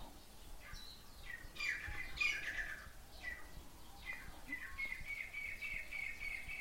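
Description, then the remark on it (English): Birds chirp softly on their own, a series of bright, high tweets and short trilling phrases that come in bursts, with a faint, steady hiss of background ambience underneath. “We might think about the silence or think about bird, car.”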